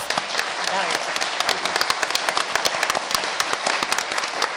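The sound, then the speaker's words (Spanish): A crowd applauds the program's collaborators steadily for several seconds, dense overlapping claps forming a continuous bright patter with sharper individual claps popping out, fairly loud and even throughout. “Un gran aplauso para estos colaboradores que además”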